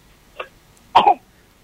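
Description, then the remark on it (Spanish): A child coughs: a small, short hack followed moments later by a louder, harsher double cough, with quiet before and after. “Te estamos haciendo renegar un poco con la tos.”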